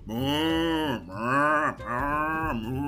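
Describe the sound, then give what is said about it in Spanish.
A group of voices imitates cows, mooing loudly in three long, drawn-out calls whose pitch swoops and bends, with only brief dips between them and no talking. “vos tenés que decir que se vengan las vacas y todos vamos a hacer el sonido de las vacas.”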